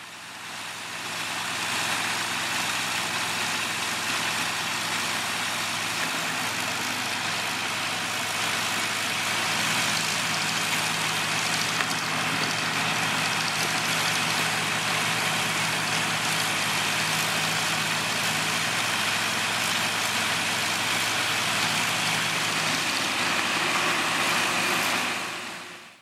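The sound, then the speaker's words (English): Huge diesel-powered engines drone steadily and loudly with a low rumbling hum, under a constant broad rush of water hitting water in the bay that continues unbroken throughout, with no one speaking; recorded during a dance piece held outside the Perez Art Museum. “So that's basically the water hitting the water in the bay. And these engines, I mean, they're, they're huge diesel powered engines.”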